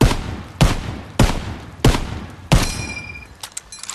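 Five loud carbine gunshots ring out in steady succession, each a sharp crack with a short echoing tail, followed by a faint metallic ringing and a few scattered clinks.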